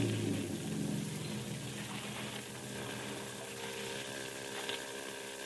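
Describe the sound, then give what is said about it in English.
A steady motorboat engine drone hums from up ahead in a foggy channel over a continuous wash of moving water, holding an even level throughout with no voices. “Better not steer directly to where the sound of his motor's coming from.”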